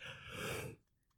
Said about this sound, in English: Ooh, it's kind of tiring, as you can tell by my yawn, but nonetheless, I digress.